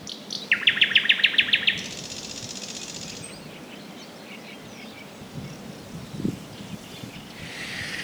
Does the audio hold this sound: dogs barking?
no